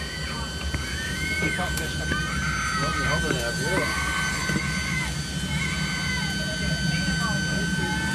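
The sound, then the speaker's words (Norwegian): A Norwegian Armed Forces Hercules military transport aircraft's engines drone steadily and loudly at an airport near the earthquake-hit area in Turkey as patients are loaded aboard, a constant whining hum with deep rumble throughout, while several people talk over the noise. “På en flyplass nær til jordskjelvrammede området i Tyrkia lastes pasienter inn i Forsvarets Hercules-fly.”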